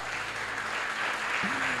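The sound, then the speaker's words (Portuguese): An audience applauds the Lord steadily, a dense wash of clapping filling the whole stretch, with a faint low tone rising briefly near the end. “Aplauda o Senhor!”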